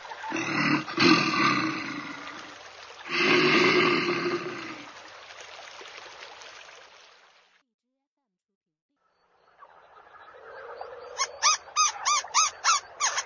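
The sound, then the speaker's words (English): A bear at the zoo lets out two long, loud, rumbling roars, separated by a short pause, then falls silent before a series of rapid, pulsing higher calls follows. “Are there bears at the zoo?”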